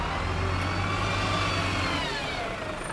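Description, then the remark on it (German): The engine of a route 96 bus rumbles steadily, with rising harmonic tones suggesting it is accelerating before the low drone thins out toward the end. No voices. “Bus 96, 11.29 Uhr.”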